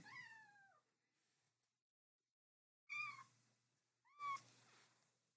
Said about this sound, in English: You guys have to hear her little meow. Just let her let, let her make her announcement.